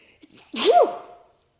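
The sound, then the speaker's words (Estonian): A single sharp sneeze bursts out, a quick intake of breath followed by an explosive noisy release that tails off within a second, with no talking. “tervist”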